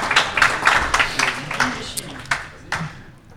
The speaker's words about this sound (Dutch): Dank je daarvoor. applaus. applaus.